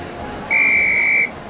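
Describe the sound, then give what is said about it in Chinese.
A single sustained referee's whistle blast, blown by a giraffe referee at the start of a forest relay race, shrill and steady at one high pitch, lasting under a second and clearly louder than the quiet background hiss. “裁判长颈鹿吹起哨子，大喊”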